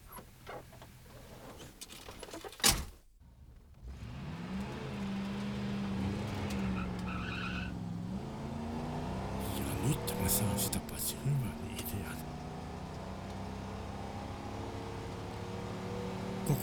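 A car door thuds shut, then an engine starts up and pulls away, revving and rising in pitch through a couple of gear changes as the car drives off steadily.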